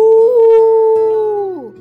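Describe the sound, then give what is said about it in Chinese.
A single drawn-out, howl-like roar, voiced in imitation of a tyrannosaurus in a children's story as it teaches the little dinosaur Henhaochi how to roar, holding a steady tone before sliding downward in pitch and trailing off at the end. “霸王龙还教很好吃怎么吼叫。”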